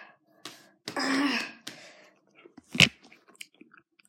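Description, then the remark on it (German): A harsh throat clearing followed by crisp crunching bites and chewing on a nut, with one loud crack among the softer crunches. No one speaks. “Scheiße, ich muss eine Nuss essen und ich habe keine Milch mehr.”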